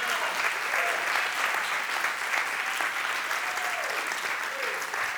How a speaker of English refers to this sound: If you learned anything tonight, would you give the Lord a great hand clap? Praise God.